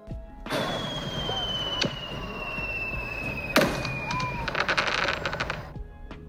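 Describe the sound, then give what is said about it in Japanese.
Fireworks suddenly going up in the sky, heard on the way home from work: a long whistling streak, a few sharp, spaced-out booms, then a rapid burst of crackling pops, all over a steady background hum. “会社からの帰り道空に突然花火が上がった”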